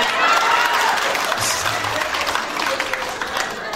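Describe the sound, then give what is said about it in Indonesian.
A crowd of Batak people breaks into sustained applause, dense clapping holding steady and loud throughout, with a few scattered cheers and voices mixed into the noise. “Ya ampun, mari yang merasa orang Batak tepuk tangan dulu dong.”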